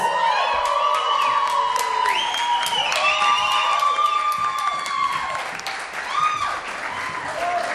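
An audience at a concert applauds steadily to welcome a fellow band, dense clapping mixed with cheers, whoops and high shouted voices rising and falling over it, staying loud throughout before easing slightly near the end.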